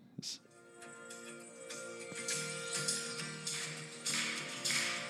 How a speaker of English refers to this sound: Oh, yeah, got the clapping going.